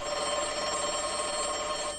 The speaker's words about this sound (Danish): Og det var telefonen. Nå, ja. Jeg må hellere lige tage den.